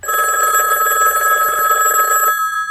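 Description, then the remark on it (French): A telephone rings loudly and steadily with a bright, warbling electronic trill for about two seconds, then stops abruptly before an answering machine message. No one speaks over it. “c'est quoi tous ces appels en absence On s'écoute le répondeur.”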